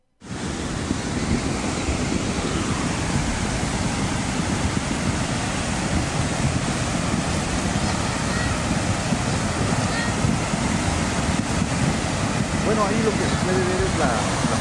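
A loud, steady roar of rushing water from a suddenly swollen, overflowing river in the municipality of San Gabriel, continuous throughout, with a dense churning rumble and no pauses.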